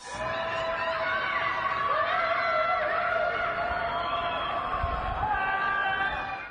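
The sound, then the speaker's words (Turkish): Many voices cry out and wail together at night in Shanghai, China, under renewed quarantine, in overlapping, sustained tones, a crowd's mingled shouts echoing steadily without pause. “Gecenin sessizliğini bozan çığlıklar, feryatlar.”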